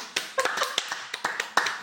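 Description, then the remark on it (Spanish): Brief, light applause: a small number of hands clapping in quick, uneven bursts, about a dozen sharp claps over two seconds, with no voices. “Aplauso para los Miserables también”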